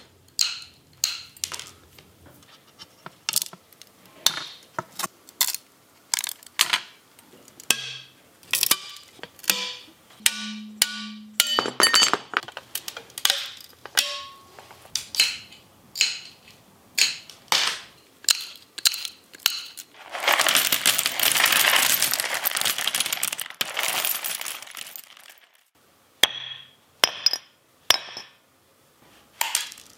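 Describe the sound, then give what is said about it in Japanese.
Stained glass being made: a long run of sharp, irregular glassy taps, clicks and clinks, interrupted by several seconds of loud, hissing grinding, then more tapping. No one speaks. “今朝は美しいステンドグラス作りのいい音それではお聴きください”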